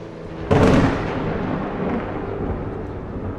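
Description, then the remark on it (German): Thunder from lightning strikes: a sudden, loud crack bursts in after a brief quiet moment, then settles into a long, heavy rumble that rolls on steadily without fading away. No voices. “Dies lässt uns natürlich glauben, dass die Blitze simultan auf dem Boden eingeschlagen sind.”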